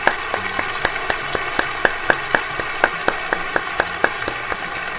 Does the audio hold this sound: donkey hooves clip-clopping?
no